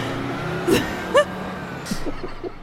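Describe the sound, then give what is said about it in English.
A large bus rumbles with a steady low engine hum, broken by two sharp bursts of air-brake hiss and a brief squeaky whine in between. “oh my god, a bus just hit all those boys.”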